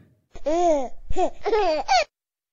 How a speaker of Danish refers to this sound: Lyden af en lille baby.